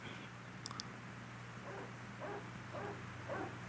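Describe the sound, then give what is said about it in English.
A dog barks outside, four muffled, evenly spaced barks over a low steady hum, with no one talking, in the background of a scene where two people make out in a car. “so the, the scene is just two people making out in a car and it's very sensual and get this effing dog barking in the background.”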